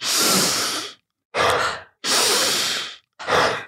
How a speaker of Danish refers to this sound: Og vi kører ind igennem næsen, slip igennem munden. Så det er ind igennem næsen, men det er fuld skrald. Det er ikke sådan en langsom og blid. Det her det er den hurtige